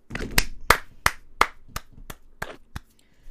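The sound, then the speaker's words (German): A short burst of hand clapping, about nine crisp, evenly spaced claps at a steady rhythm, fairly loud, slowing and fading slightly toward the end with no talking. “ich würde sagen, ganz kurz Applaus.”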